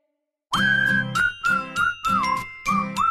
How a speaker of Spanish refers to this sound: Qué hermoso instrumento el clarinete. Adoro el clarinete